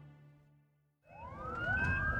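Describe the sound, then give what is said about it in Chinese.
An ambulance taking people to hospital: its siren starts up after a second of low steady hum, the tone sweeping upward and growing louder over a rough, rumbling engine drone. No one speaks. “急救车将他们送到医院。”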